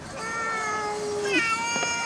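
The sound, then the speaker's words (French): A single drawn-out cat meow, steady at first and then bending in pitch at the end, clear with no talking over it. “un, petit chat, un petit chat.”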